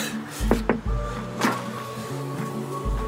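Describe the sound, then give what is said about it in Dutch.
A couple of quick, sharp knocks on the wooden door of a tattoo studio, followed by another single rap a moment later, over a low steady background hum. “Moet ik hier kloppen?”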